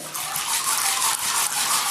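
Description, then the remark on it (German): A steady rushing pour as lentils are tipped into water to soak, a continuous hissy patter with slight surges lasting the full two seconds, with no one talking. “deswegen nehme ich heute ähm, Linsen, ja. Die macht man im Wasser rein”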